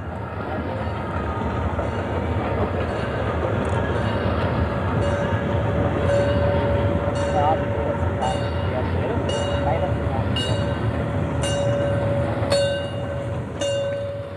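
A passenger train hauled by locomotive 52 66 66 from Berlin-Schöneweide rolls steadily along the rails through the Oderbruch east of Berlin on a Sunday, with a continuous low rumble, faint rhythmic clicks and a thin squealing tone, heard on board over a long stretch.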